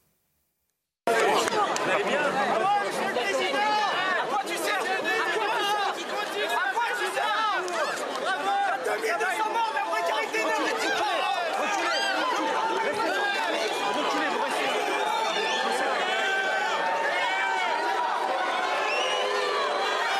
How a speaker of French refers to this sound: Et la dernière fois, je crois qu'il y a eu des petits moments de chahut, mais c'est normal, parce qu'on va au, au, contact. On va regarder un tout petit petit chahut.